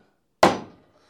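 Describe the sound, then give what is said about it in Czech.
A door slams shut with a single loud, sharp bang that rings out briefly and fades within half a second, with nothing else around it. “Počkej, já zavřu, ne?”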